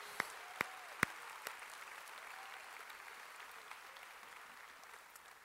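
An audience applauds the Lord in a morning service, a dense wash of clapping with a few sharp, louder claps standing out at the start, holding an even level throughout with no talking.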